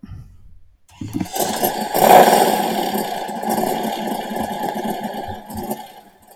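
After a moment of quiet, a motorcycle engine roars to life, surges loudly in a strong rev, then settles into a steady, rumbling drone, with no talking.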